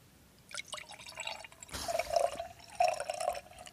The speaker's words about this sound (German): Okay. Dann gieße ich mal ein. Ja, ja. mach mal.